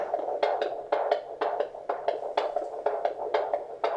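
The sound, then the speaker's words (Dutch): A baby's heartbeat on a monitor: a fast, steady run of whooshing thumps, roughly two per second, clearly slower than earlier on, over a constant electronic hum, clear with no voices. “In het begin is het hart natuurlijk echt klein. Dan moet het heel veel en snel kloppen.”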